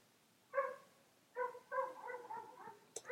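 Small dogs yapping in quick, high-pitched barks: one short yelp, a pause, then a rapid run of several overlapping yips, clear, ending with a sharp snap.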